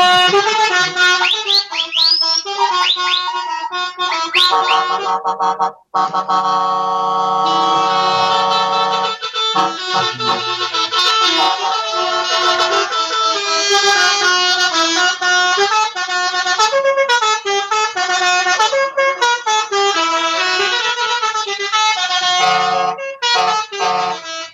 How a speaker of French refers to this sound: Alors ça, euh, alors ça, c'est du klaxon. Bah voilà. C'est sur ces klaxons de, de camions absolument incroyables qu'on va se quitter euh, depuis ici, euh, Freineuse.